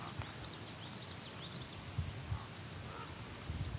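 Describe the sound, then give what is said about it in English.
Faint raven calls sound a few times, two ravens calling each other from opposite sides of the listener, against a quiet outdoor background with soft chirping birds and occasional low thumps. “there are two ravens calling each other.”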